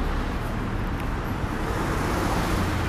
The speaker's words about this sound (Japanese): 春日通りを引き続き歩いていますどうでしょうか結構ね聞こえるんじゃないですかねちなみにマイクから顔の距離はさっきと同じぐらいの位置を取っているんですけれどもどうなんでしょうかなり車の通りは多いですね